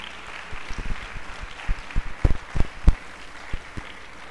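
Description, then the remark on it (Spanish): Scattered applause with sharp, irregular claps over a steady hiss, thin at first, then bunching into a louder burst of clapping before tapering off into a few final claps. “Voy a aplaudir a alguien en esta casa, Dios mío.”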